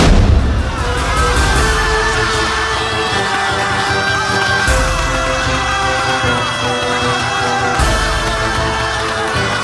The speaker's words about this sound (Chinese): 就照军师所说，炮发三声，开启这门，对付荷兰番犬。